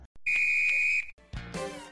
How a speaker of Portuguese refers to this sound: Apito final.